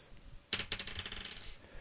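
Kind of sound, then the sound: household object, a die being rolled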